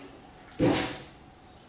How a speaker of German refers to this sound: Rums. So klingt das, wenn eine Katze von irgendwo runterspringt.